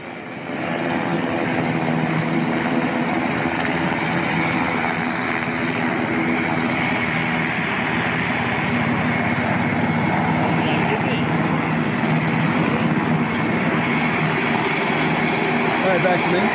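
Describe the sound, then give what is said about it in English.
A Black Hawk helicopter, flown by the Taliban, makes a loud, steady roar of engine and rotor with a low throbbing hum that holds constant for the whole stretch. “Here's our Black Hawk helicopter being flown around by the Taliban.”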